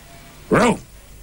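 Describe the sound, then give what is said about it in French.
A person gives a single short, loud woof, imitating a dog's bark, with a quiet background before and after. “C'est un chien.”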